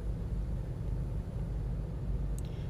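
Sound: car interior rumble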